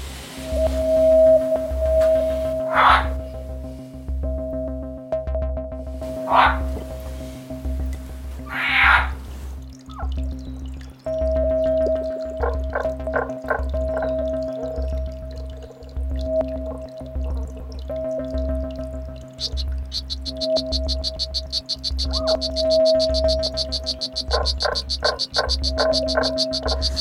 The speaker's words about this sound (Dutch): Het zijn hele mooie diertjes, die, die groene kikkers. Eh, mooi.